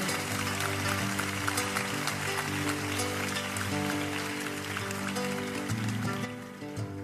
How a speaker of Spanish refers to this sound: Un aplauso para los que han organizado este concierto, que también son héroes anónimos.